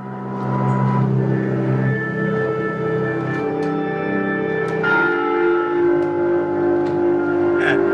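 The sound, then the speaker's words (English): Rich sustained tones with layered harmonics ring out continuously, with bell-like strikes and shimmering synth-like pitches blending into a dense, resonant drone over the full eight seconds. “actual air being piped through Pringle tubes”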